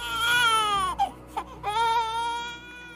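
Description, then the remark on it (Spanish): A baby wails in two long, sustained cries separated by a brief catch of breath, loud, with no other voices present. “tiene frío y llora, y su lloro lo escucha Abdullah y entra en el portal”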